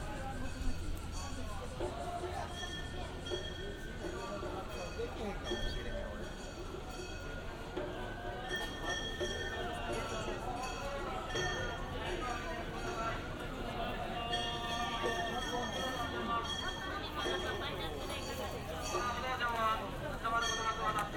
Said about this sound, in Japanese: 音日記シリーズ2018年7月17日祇園祭り山鉾巡行